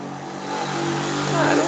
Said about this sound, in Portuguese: Ó, outra moto.